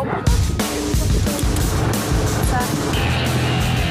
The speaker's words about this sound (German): Das Auto hier ist ein Mercedes AMG GTR das schiebt auch ordentlich vorwärts. Ist aber moderner, da kann man mit der Wippe schalten, wie ein Formel-1-Auto.